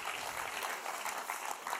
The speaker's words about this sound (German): Cool, Leute, einen grossen, grossen Applaus geben. Merci viel, viel mal.